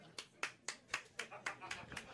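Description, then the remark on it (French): Sparse, steady applause from a small audience: about nine crisp claps at an even pace, fairly quiet, as audience members on a first Tinder date clap in answer to the host's call. “Par applaudissement, les gens qui sont sur une première date Tinder au lundi douteux.”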